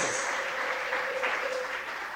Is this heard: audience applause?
yes